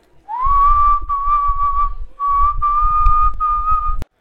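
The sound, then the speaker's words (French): A single person whistles a slow, sustained melody of a famous Handel opera aria, holding long, clear notes in two phrases separated by a brief pause, with breathy low rumble underneath. “L'exemple le plus célèbre est sans doute son fameux”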